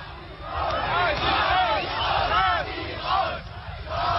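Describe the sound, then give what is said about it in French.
A large crowd of several thousand protesters at a popular festival shouts together in a dense, continuous roar of raised voices, chanting "Neues Forum", the name of a new opposition group, with rising and falling chant-like swells that stay loud throughout. “Soudain, un cri.”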